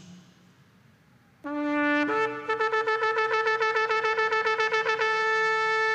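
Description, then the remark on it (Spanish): A shofar sounds a loud, brassy blast, then breaks into a rapid string of short staccato notes, the teruah alarm call, with no talking. “hay un llamado particular de este instrumento, el shofar, llamado terua, que era el, el sonido de alarma.”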